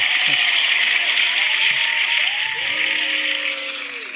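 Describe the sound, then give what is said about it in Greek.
Dense, continuous clapping, the customary applause welcoming a guest, fills the whole stretch, steady and fairly loud, with a few rising whistle-like tones and faint voices mixed in before it eases slightly at the end. “Και φυσικά το καθιερωμένο χειροκρότημα, το οποίο δεν ξέρω θα είναι manual.”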